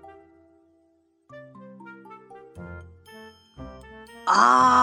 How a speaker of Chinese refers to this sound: 嗷嗷！突然一阵狮吼声铺天盖地的传来，那声音之洪亮，就连月亮和星星都吓了一跳。是谁的吼声呢？原来呀，是胆小鬼小狮子尼奥的吼声。